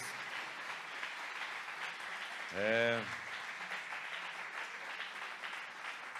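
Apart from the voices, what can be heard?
audience applause in church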